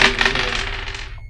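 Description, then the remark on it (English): A quick, busy clatter of four dice, two positive and two negative, being rolled in a game, tumbling and rattling across a table, fairly loud, settling to a stop after about a second. “So another negative dice. Two positive, two negative. We roll.”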